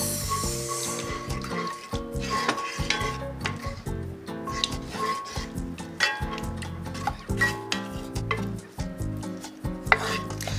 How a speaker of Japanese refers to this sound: さあこれを半分ぐらいまで入れたらあとはダーッと入れてしまっても大丈夫ですが、まあ、最初は不安な人はちょっとずつ混ぜては入れ混ぜては入れっていうことを繰り返してあげると綺麗なクリームスープになります。